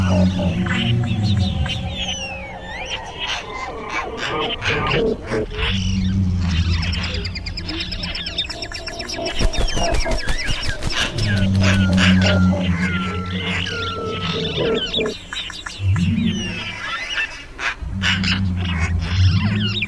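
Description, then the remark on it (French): A fearsome wild animal roar: deep, rumbling growls rise and fall in several long, loud bursts, while birds chirp above and a brief flurry of fluttering breaks out midway as a family of frightened birds flies off at the roar. “Il sursaute en entendant un effroyable rugissement qui fait s'envoler une famille d'oiseaux épouvantés.”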